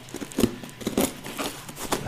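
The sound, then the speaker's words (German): Crinkling and tearing as a parcel is unwrapped, with packing tape ripping in several short, uneven bursts over about two seconds. “Also, ich packe das Paket jetzt mal ein bisschen aus hier. Ich habe mir eine Schere zur Seite gelegt.”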